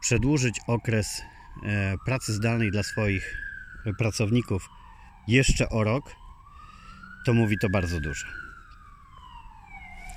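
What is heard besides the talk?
approaching ambulance siren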